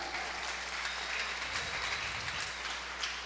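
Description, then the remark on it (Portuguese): A church audience claps steadily for a few seconds in a round of applause for the church's cell group leaders, the dense applause sustained with no voices rising above it. “Queria pedir uma salva de palmas pela vida deles.”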